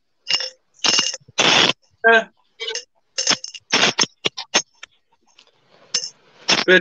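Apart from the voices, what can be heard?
coins dropping and clinking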